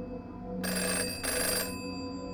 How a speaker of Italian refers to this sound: Il suono del telefono insistentemente. Ti sveglio.